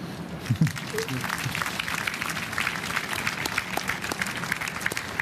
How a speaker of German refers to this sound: Savoy, du klatschst schon selbst.